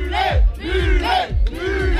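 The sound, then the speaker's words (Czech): A loud festival crowd at a mullet hairstyle beauty contest applauds, shouts and cheers in four rhythmic, rising-and-falling yells, like a chant, as models show off their hair on stage, with a dense wash of audience noise underneath the whole time. “Na pódiu se jeden po druhém předvádějí hrdí majitelé maletů, zatímco publikum kvalitu účesů oceňuje potleskem a křikem.”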